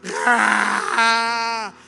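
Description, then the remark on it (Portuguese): A man's voice imitates a man's loud, blubbering crying as a growly, creature-like groan: two drawn-out moaning wails, the second one steadier and higher before stopping abruptly. “Agora homem, não sei se é porque não treina, parece o Chewbacca chorando.”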